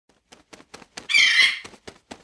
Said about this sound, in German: Da fliegt sie schon rein. Dankeschön, liebe Taube. Die Ergebnistaube war da.